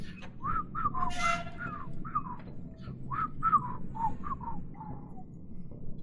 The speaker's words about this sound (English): You hear whistling continue.